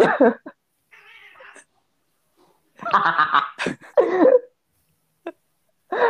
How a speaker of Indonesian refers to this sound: Tuh kan tadi ada suara kucing, kucing aja mengamini.